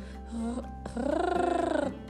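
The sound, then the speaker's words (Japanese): A single voice produces a throaty, rattling uvular trill, a French-style rolled R held for about a second with a rapid, even flutter, after a brief softer vocal sound. It demonstrates a more clearly trilled version of the soft French R made at the back of the throat. “4つ目はあのその今柔らかいフランス語のあたりのあの柔らかい喉の奥のところのフランス語の R のところをもうちょっとはっきり震わせる。”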